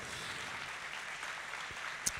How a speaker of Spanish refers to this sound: Estamos celebrando dos años de que Casa sobre la Roca Oriente se estableció en este lugar. Un aplauso al Rey de Reyes y Señor de Señor.